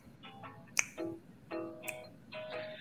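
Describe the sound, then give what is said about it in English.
Crisp finger snaps, made to accompany singing, land about a second apart in a steady rhythm, sharp against quieter sustained tones that swell and fade between them. “So does anyone want to do some snaps to kind of sing? We can do snaps.”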